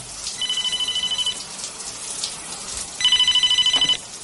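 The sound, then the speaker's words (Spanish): A cordless phone rings in a bathroom in two electronic trilling bursts about a second long, separated by a pause, over a steady background of running water or hiss. No one speaks. “Se gira hacia el teléfono inalámbrico.”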